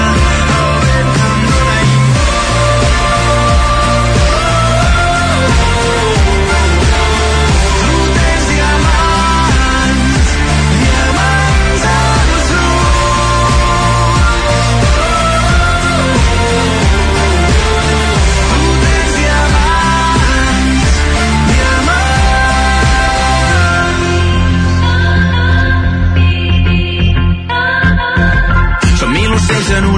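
A full-band Catalan pop track with electronic elements, steady beat, dense layered synths and bass, played loud and continuously; instrumentation thins out near the end as it fades toward quieter sustained tones.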